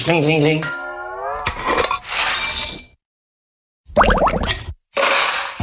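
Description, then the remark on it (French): A small servant's call bell, once kept at home to summon a servant, rings in a few bright, metallic bursts of jingling and clinking, with a short silent pause before a final round of ringing. “Et j'ai aussi la sonnette de, de, pour son domestique c'est le slingling.”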